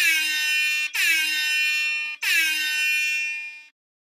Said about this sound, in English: I've decided to again ask if you can always have the air horn.